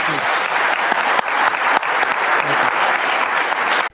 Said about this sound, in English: All right. Look, we're out of time. Let's have a great round of applause for this wonderful panel.